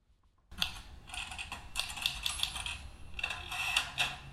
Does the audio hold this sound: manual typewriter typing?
yes